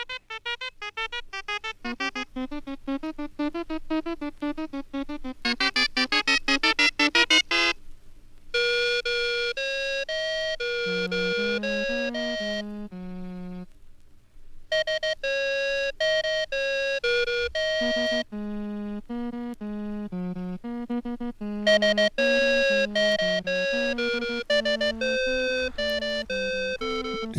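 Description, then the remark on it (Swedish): Obscure melodic music from a personal record collection plays steadily from a record, built from bright, chiming bell-like synth tones in quick note patterns, with a couple of brief breaks and no one talking over it. “Ja, i det här segmentet så det går ut på att jag eh, tar fram något smalt ur min skivsamling.”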